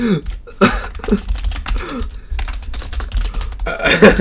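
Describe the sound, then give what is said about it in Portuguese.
Someone types a message on a keyboard, a quick, uneven stream of clattering key clicks with brief pauses and a burst of faster strokes near the end. “estou-te a mandar uma mensagem agora.”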